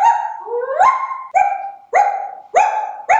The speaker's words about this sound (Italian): Sì, sì, si tratta proprio del cane dell'onorevole. Siamo andati a registrarlo dal vivo